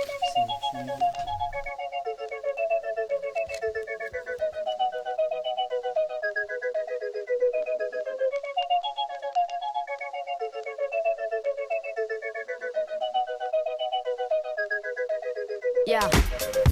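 A melodic instrumental intro of bright, synth-like tones repeating a steady tune at an even level, with a fuller, louder burst of sound arriving right at the end.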